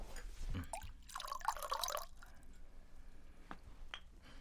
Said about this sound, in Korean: 박 실장은 스트레이트 잔을 찾아 꺼내놓고 병을 따 데킬라를 따랐다.